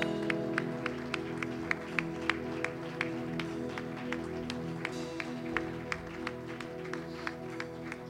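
An audience at a church service claps together as a round of applause for Jesus, in a steady, even rhythm, roughly three claps per second, over a sustained low keyboard or organ chord that hums underneath throughout.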